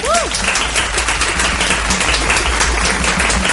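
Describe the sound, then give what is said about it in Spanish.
Steady, dense applause from a crowd in tribute to the Harry Potter saga on its 20th anniversary, a continuous crackle of many hands clapping at even loudness throughout, with a brief rising whistle-like cheer at the very start. “se cumplieron 20 años de Harry Potter, así que desde aquí, mm, más que nada, por encima de todo, vamos a dar un aplauso a la mejor saga de la historia.”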